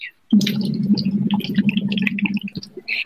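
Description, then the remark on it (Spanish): Continuous bubbling as air is pushed through a tube into water with a device called Doctor Box, with a steady low humming tone underneath and irregular popping gurgles lasting nearly three seconds. “generas las burbujas, entonces sientes toda la vibración que te, genera el, burbujeo en el agua”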